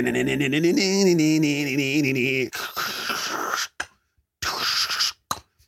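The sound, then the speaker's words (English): Audio from the video game Tony Hawk's Pro Skater 2: a sustained, wavering tonal sound for a couple of seconds, then loud gritty scraping and rolling bursts broken by short silences. “That's the sound of Tony Hawk's Pro Skater 2.”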